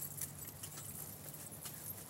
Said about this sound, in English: They've got all of their finery on. Can you hear? Can you hear the horses?